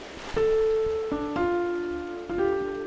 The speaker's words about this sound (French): ambiance pluie.